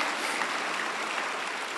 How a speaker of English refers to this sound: Now clap. Hallelujah.